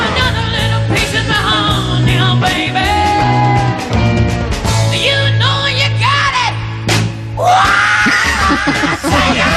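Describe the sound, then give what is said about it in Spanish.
A woman's raw, powerful scream rings out over a dense rock mix with driving bass and distorted guitars, her voice straining high and loud near the end of the passage. “Sabes que lo haré, que puedo darte más amor y pega el grito.”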